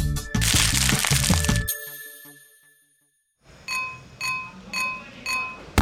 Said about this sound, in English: These snapping shrimp sometimes live in colonies. That means a group of a lot of them. Imagine hundreds of these shrimp snapping all at the same time. It'd be like the sound of a hundred people popping bubble wrap all at once.